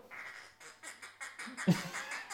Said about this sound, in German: Quaken, kann sie.